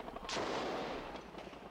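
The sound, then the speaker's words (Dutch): A muffled, booming gunshot followed by a rolling echo and a couple of fainter reports against a low outdoor rumble, with no one speaking; shots heard at a roadside protest with hundreds of demonstrators, where Israeli soldiers and Palestinian police are present. “Opnieuw hoor ik schoten.”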